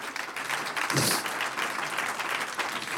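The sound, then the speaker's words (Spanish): An audience at a church service gives a round of applause to the Lord, many hands clapping in a dense, steady crackle that holds at a strong level for the whole stretch without letting up, with no clear voices on top. “Un aplauso al Señor.”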